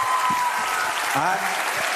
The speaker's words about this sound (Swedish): de tycker om dig. Fortsätt klappa!